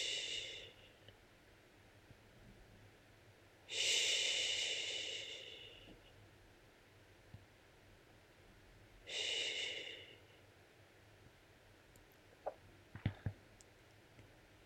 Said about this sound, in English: Feel into the soothing power of this soft breath, this soft noise. Sensing into the power of this gentle, soothing sound, feel the comfort and release that it brings.